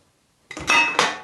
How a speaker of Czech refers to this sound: Já teď zcela omylem převrhnu plechovku s pivem